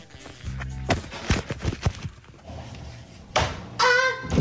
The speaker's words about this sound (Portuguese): Uh, portanto, ela, ela deu um espaço para trás, bateu aí com as costas, soltou um gritinho. O gritinho, há que dizer, é ótimo. Eu acho que tens aí o gritinho. Vamos ouvir o gritinho.